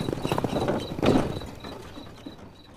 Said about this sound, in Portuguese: Fechou a janela dos dois lados, deu uma leve batida na parede e o cavalo partiu a galope.